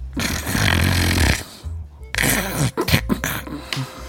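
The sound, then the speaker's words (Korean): Loud, rattling snoring of a woman passenger asleep on an express bus: a long, heavy inhaled snore followed by a pause, then a series of shorter, choppy snorts and gurgling snores. No talking, just the sleeper. “하지만 그녀의 코 고는 소리는 우렁찼습니다.”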